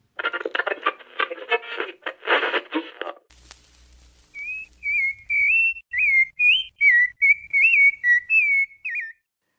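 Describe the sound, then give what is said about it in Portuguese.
A sabiá thrush sings a run of clear, fluting whistled phrases, each short and varied in pitch, following a few seconds of rough, crackling patter at the start. “Consta que o termo sabiá deriva da língua tupi e significa aquele que reza muito, em alusão ao rico repertório vocal desses pássaros.”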